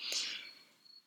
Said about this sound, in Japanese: なんか、まあ結構前から聞こえてるとは思うんですけど、これ録音する時も必ず これほら、スズムシ聞こえますこれがね、もう今はたまたま1匹だけだけど、すごい数匹が鳴くんで、後ろでスズムシの声はしょっちゅう聞こえてくると思うんですけど